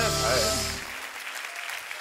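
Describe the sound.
A studio audience claps for the show's presenter in a steady, dense patter of many hands that holds for about two seconds, with a brief voiced, tonal sound over the opening moments before the clapping continues alone.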